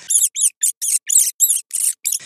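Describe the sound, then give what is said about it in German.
Agitated bats squeak from the ceiling overhead in a quick series of about nine shrill, chittering chirps, fairly loud, with short gaps between them and no voices. “über uns waren die Fledermäuse und guckten uns ein bisschen aufgeregt an”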